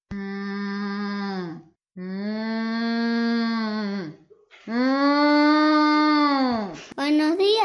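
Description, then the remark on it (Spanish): Three long, loud cow moos in succession, each a drawn-out, steady low bellow that sags in pitch at the end, with brief pauses between them. “Había una vez una vaca en la quebrada de un mahuaca.”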